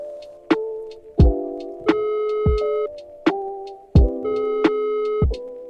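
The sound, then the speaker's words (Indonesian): A phone ringing tone plays over the line: steady electronic tones repeat in a regular pattern, each starting with a soft click. The sound is clear and fairly loud, with no one talking. “iya langsung kita telepon dia nih ya”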